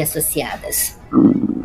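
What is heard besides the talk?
stomach growling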